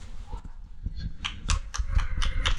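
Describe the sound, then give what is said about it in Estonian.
Scattered applause from a small group, sharp irregular claps that start sparse and grow a little denser and louder toward the end, with no talking. “juba esimene aplaus.”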